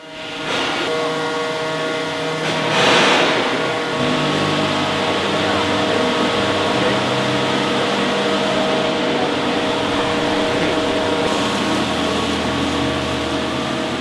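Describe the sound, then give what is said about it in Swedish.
A large radio transmitter alternator built in 1924, at Grimeton, spins up to 17,200 hertz while transmitting to America, a loud, steady mechanical drone layered with humming tones and hiss, with a brief roaring surge near the start and no voices. “Så låter maskinen från 1924 när den varvar upp till 17 200 hertz och sänder ända till Amerika.”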